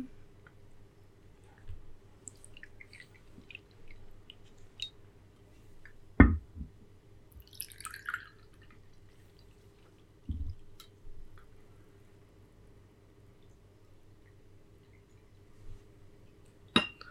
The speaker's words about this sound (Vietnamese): thế thì bây giờ mình sẽ rót trà nhá